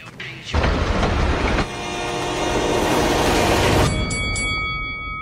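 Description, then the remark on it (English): A train thunders past on railroad tracks with a sudden, loud roaring rumble that holds for several seconds, then gives way to a steady high-pitched ringing tone. “Every day, people tempt fate and die trespassing on railroad tracks. See tracks, think train.”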